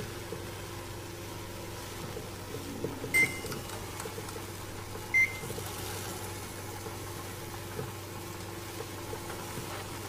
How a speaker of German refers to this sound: der sich gerade ähm, einen Burrito in der Mikrowelle macht. Hier der kleine Sound dazu.